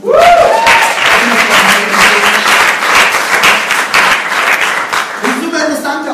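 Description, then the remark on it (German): Loud, dense applause from an audience fills the room, a steady wash of many hands clapping that holds for several seconds before thinning slightly at the end, with a voice briefly audible. “Vielen Dank. Applaus.”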